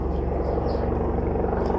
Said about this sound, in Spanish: Si no lo escucharon, ya se los dije. Hay un helicóptero llegando aquí. Está en el helipuerto.